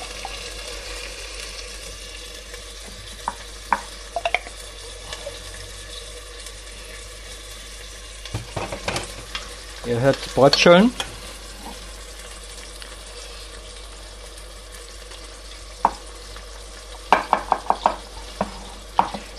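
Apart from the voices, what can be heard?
food frying and sizzling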